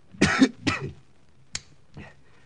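A man coughs twice in quick succession, harsh, followed by a brief click and then a softer, shorter cough trailing off. No one speaks.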